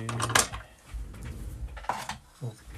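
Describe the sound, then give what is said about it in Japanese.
The frog (hair box) being taken off a violin bow to remove its hair: small wooden clicks and clacks, a sharp cluster early on, then quieter fiddling and two more distinct knocks near the end. “今、ついてる毛をですね外すというところですね木の音がするよねきっとねこれ毛箱を外して”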